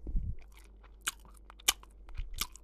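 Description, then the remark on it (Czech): Three short, wet kiss smacks spaced about a second apart, with soft mouth noises and a low thump at the start; no one speaks. “Ten polibek.”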